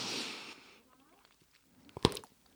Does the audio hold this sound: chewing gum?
yes